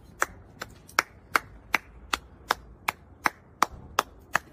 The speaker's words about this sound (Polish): więc myślę, że zasłużyłem na, na, na brawa po prostu.